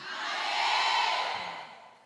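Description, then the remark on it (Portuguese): A crowd of women in an audience shouts together in response to being asked who is a woman here, a loud, sustained collective cry that swells and then fades over about two seconds, with no single voice standing out. “Não dizem que a gente fala muito e grita muito. Quem é mulher aqui?”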